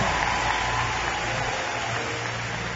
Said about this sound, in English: Let's give me a big hand clap. Amen.